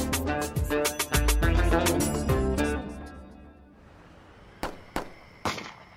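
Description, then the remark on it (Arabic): Gunfire: a rapid, dense burst of sharp cracking shots over a ringing musical backdrop, then a pause and three loud, isolated shots spaced apart near the end. “مدينة طمرة الفلسطينية الجليل الغربي المحتل الأهالي تعودوا يسمعوا أصوات إطلاق النار يومياً”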